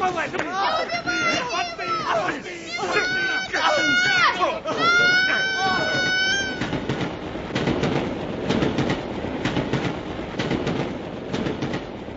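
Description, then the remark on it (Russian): Several voices shout excitedly over a rumbling background, then give way to the tail of a train echelon rushing past: a loud, steady roar with a rapid, regular clatter of wheels for several seconds. “сплошным комком боли летел вниз, не чувствуя уже, как покатился по откосу, расшибаясь и обдираясь, как промчался мимо места его падения хвост эшелона, как скрылся поезд унося его бывших попутчиков.”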